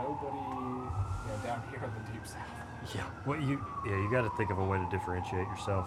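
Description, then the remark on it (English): A wailing siren rises and falls steadily in the background outdoors in Birmingham, moderately loud, while people talk over it throughout. “excuse the siren in the background.”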